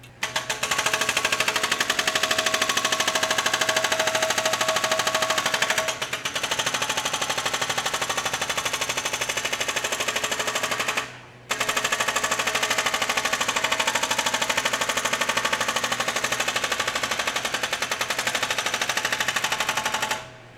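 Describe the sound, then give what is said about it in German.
A jackhammer smashing a crane foundation early in the morning near Johann Nepomuk Berger Platz, recorded from right beside it. It pounds away in a rapid, continuous rattling burst, loud and harsh, with a brief pause near the middle before hammering resumes; no voices are heard. “In meiner Wohnung nahe dem Johann Nepomuk Berger Platz begrüßt mich hingegen frühmorgens der Gesang eines Presslufthammers, der gerade ein Kranfundament zertrümmert.”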